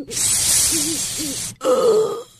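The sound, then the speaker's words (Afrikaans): A voice imitates a black bug coming round, first with a long breathy hiss carrying low wavering groans beneath it, then a short strained groan after a brief pause. Fairly loud, with no speech. “Die swart gogga se oë gaan oop en daar is weer 'n sis en kreun geluid uit sy bek.”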